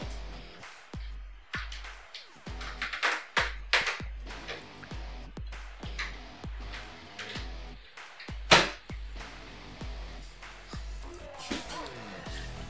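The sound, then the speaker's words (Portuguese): The doors of a very large wooden wardrobe in a home office being opened, a busy run of knocks, clunks and rattles at an irregular pace, with one sharper bang near the end. “deixa eu só abrir as portas do armário aqui, porque tá dando uma, ressonando o som aqui.”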